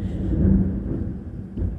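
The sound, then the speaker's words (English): A low, rolling rumble of thunder fills the background, steady and fairly loud, with deep bass energy swelling slightly before easing off. No voices are heard. “Ooh, I don't know if you heard that thunder boomer, but it's totally setting the stage for this story.”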